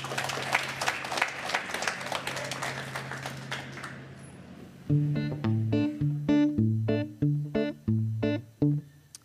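An audience breaks into loud, dense applause for a performer being introduced, gradually fading over about five seconds, then a rhythmic, punchy musical riff with bright synth notes takes over.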